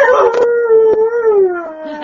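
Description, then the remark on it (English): A dog lets out a long, sustained, loud howl with a wavering, slowly falling pitch, its drawn-out tone bending in a way that resembles the phrase "I love you". “And that one line the dog did, I did hear.”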